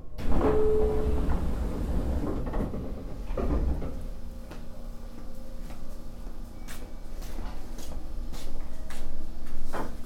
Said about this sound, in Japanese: 長者窓に着きます降り口は右側です1番乗り場に着きます開くドアと足元にご注意ください